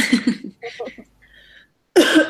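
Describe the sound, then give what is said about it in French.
A series of coughs: two or three quick bursts, a short rasping pause, then a final strong cough after a moment of quiet, all fairly loud with no talking. “On va direct tousser.”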